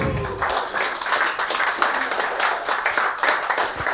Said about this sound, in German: Zuerst mal danke ich allen Rednerinnen und Rednern. Ähm, euch danke ich fürs Dabeisein. Ich danke dem Mieterlab, dass wir hier sein durften. Den Streaming-Leuten, die ähm, all das hier auch für die Nachwelt zur Verfügung stellen. Applaus.